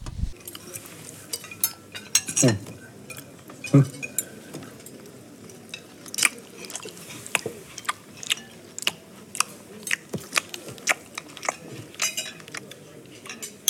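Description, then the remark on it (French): Noisy, wet chewing mixed with sharp clinks and scrapes of cutlery against a plate, coming in quick irregular bursts over a low steady background for the whole stretch. “Quoi Je mange comme ça, moi Est-ce que ça veut que t'organiser un restaurant fini, tu sais ça que tu me donnes Manger comme un gros chien dans sa gamelle, hein Regarde les gens autour, comment ils mangent.”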